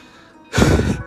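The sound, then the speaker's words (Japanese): A single loud, breathy nose blow bursts in after a quiet lead-in, lasting about half a second, with a brief extra snort at the end; no talking. “鼻かんでるのバレちゃった。”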